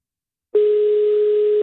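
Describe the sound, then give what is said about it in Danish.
After a brief silence, a loud, steady telephone hold tone begins, one unbroken electronic note that continues to the end with no talking. “Du er sat på hold.”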